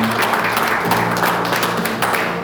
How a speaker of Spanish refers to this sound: Ese aplauso para el Señor está muy suave.